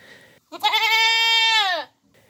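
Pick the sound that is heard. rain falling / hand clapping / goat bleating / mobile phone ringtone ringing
goat bleating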